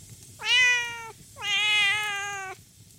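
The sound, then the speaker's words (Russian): A cat meows twice, a short call followed by a longer, drawn-out one, both clear and fairly loud over a low background hum. “Когда кошка кончила свой рассказ, королевский военачальник пожалел несчастное животное.”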